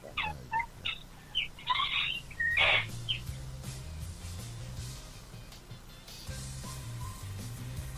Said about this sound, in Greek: Και πάμε τώρα που ακούμε και πουλάκια. Λες και είμαστε στα ωραία του παραδείσου.